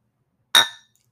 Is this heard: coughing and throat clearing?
no